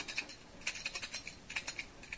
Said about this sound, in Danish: Og det er sådan nogle nøgler, står der så godt nok.